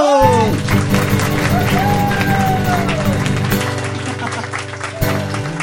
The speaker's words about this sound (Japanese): どっちが拍手多かったのかな お前の言った方と歌うよ俺はすげえ竹下君の拍手の方がなんか質もいいし拍手の質がなんかこう本心のやつが出てたから